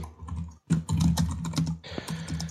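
Rapid keyboard typing in the background, a steady stream of crisp key clicks with a brief pause near the start, continuing without any voices.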